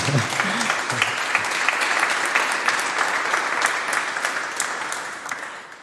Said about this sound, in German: Jetzt dürfen Sie gerne klatschen.